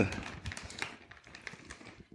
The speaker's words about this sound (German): Aber es sind meine Nüsse. kann man ja so eine Tüte so halb aufreißen? Wie kannst du so mit meinen Nüssen umgehen?